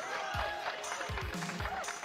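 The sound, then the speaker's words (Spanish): An audience applauds with a steady, dense wash of clapping lasting about two seconds, some voices and low thumps mixed in beneath it. “Un aplauso ahí el público siempre. Otro aplauso.”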